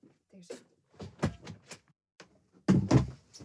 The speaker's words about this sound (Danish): kan du ikke lige lukke døren? Jo,